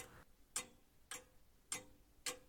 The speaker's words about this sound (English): The clock sounds further away, not in the office area.